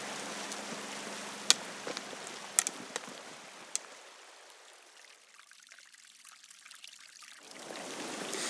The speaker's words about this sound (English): and I'm by what I call Greendale Beck, but I think you call it something else.